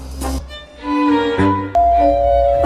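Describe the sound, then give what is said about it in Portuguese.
A doorbell chime rings out loudly, playing a short run of sustained musical tones that step from note to note, with no one talking over it. “Quem será que está apertando a campainha?”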